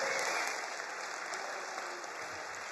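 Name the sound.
audience clapping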